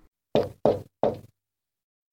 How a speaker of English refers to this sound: At 11 o'clock, she tapped on his door.